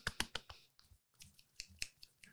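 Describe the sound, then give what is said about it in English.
A quick series of about seven or eight sharp finger snaps, made in place of clapping to applaud Cotswolds gin, in an uneven rhythm, crisp and bright, with short gaps between them and no talking. “You can have some clicks because I don't know how well my clapping comes out.”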